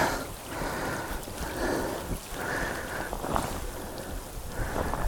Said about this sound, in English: in the rain.